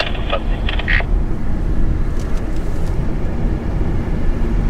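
Steady low rumble of road and tire noise inside a moving electric car, with little high-pitched sound, plus a few faint brief clicks and squeaks early on.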